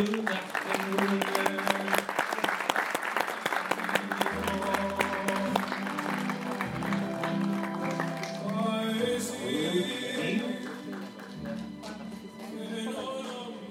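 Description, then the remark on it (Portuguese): A crowd aboard the cruise ship MSC Opera applauds the captain, Carlo Aiello, and the ship's officers before a navigation presentation, steadily and loudly for the whole stretch, a dense continuous clatter of many hands clapping, with upbeat music with a deep bass line playing underneath. “Um forte aplauso, big applause for, for Carlo Aiello and the officers of the MSC Opera.”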